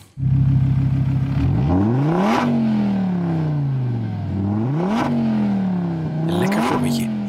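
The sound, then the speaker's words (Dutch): A Donkervoort D8 GTO sports car's 2.5-litre Audi five-cylinder engine idles with a steady burble, then revs up hard three times through rising gear pulls, each climb ending in a brief drop before pulling again, loud. “Dit is de vijfcilinder uh, van, eh, van Audi.”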